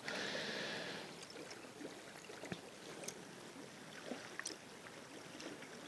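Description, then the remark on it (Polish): Water pours in a steady splashing stream for about a second as coffee is made in the dark, then quiets into soft handling noises with a few small clinks and taps. “Tak, w międzyczasie sobie szykuję kawę. bo e, ciemku muszę się przyjrzeć, ile wody nalewam.”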